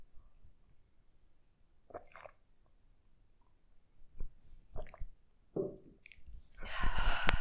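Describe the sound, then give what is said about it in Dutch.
Quiet sips of tea: a few short slurps and soft mouth clicks spaced apart, ending in a longer, louder airy slurp or exhale, with no talking. “Ik ga breken, nu al, breek ik nu al even een slokje van de thee.”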